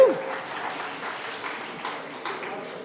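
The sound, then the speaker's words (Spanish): An audience applauds steadily for about three seconds, a dense, even patter of many hands clapping at moderate volume with small swells, opening with a brief vocal exclamation. “Muy bien, fuerte el aplauso.”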